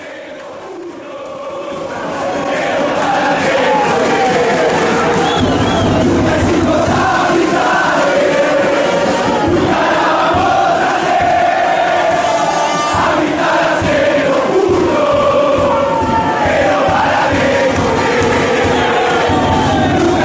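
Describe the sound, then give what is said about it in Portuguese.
Boca supporters chant together in a stadium, a loud, dense mass of voices singing a rhythmic, sustained melody, a chant dedicated to Chacarita, that swells after a quieter opening and holds steady throughout. “Então vai ouvir essas duas e depois também uma que a torcida do Boca dedicou especialmente ao Chacarita.”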